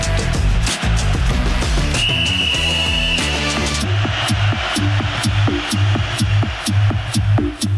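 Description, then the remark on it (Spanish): A single sharp referee's whistle blast, held for about a second, cuts through a loud, punchy music bed with heavy drums that carries on after it. “Que suene el silbatazo inicial.”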